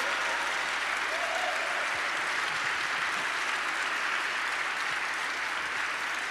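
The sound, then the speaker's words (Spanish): Sustained applause for God from a church audience during a service, a dense, even wash of many hands clapping that holds steady for several seconds without any voices breaking through. “Dale un aplauso fuerte a nuestro Dios.”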